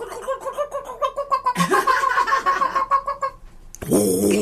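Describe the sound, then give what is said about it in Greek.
A chicken clucks in a quick, steady run of short, nasal bursts for about three seconds, followed by a brief pause and then a louder, harsher squawking outburst near the end. “Αυτό ήταν ένα κοτόπουλο”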